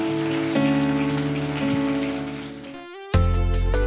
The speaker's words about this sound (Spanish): Dale un fuerte aplauso, Señor, si recibiste.